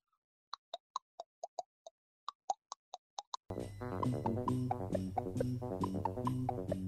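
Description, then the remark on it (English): A pencil taps against teeth about a dozen times, quick hollow plops shifting in pitch to pick out a little tune, clear, before loud music abruptly takes over for the rest. “I don't think it'll work so well with a pencil, but let me try.”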